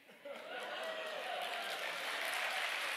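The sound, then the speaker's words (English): Steady, dense applause from an audience fills the moment, rising quickly after a brief quiet start and holding at a full, even level throughout. “Appreciate that clap.”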